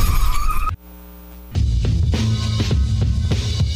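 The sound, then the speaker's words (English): A brief, high tire screech from a skidding car, a moment of low droning, then a loud burst of noisy clattering like a collision in a car accident, with no voices. “Injured in a car accident?”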